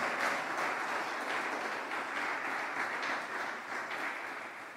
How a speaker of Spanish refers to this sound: Le damos un aplauso al Señor por eso. Porque así es.